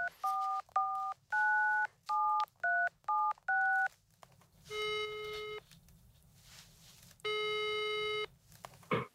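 A rapid series of about eight touch-tone dialing beeps, followed by two longer buzzing ring tones with a pause between them, heard clearly with no talking.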